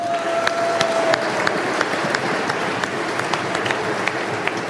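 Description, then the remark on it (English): Steady, dense applause from an audience for a technical management crew member, a continuous wash of many hands clapping with scattered sharper claps, sustained at an even loudness for several seconds with no talking. “Please direct your applause in that direction.”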